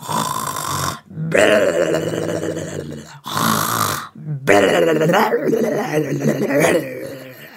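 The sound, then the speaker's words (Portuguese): A voice imitates loud, rumbling snoring of a wolf sleeping in the shade of a tree: several long, rasping snores in a row, separated by brief pauses for breath, fairly loud. “O lobo ficou com um barrigão tão cheio que, assim que encontrou a primeira árvore, deitou à sombra e dormiu num ronco só.”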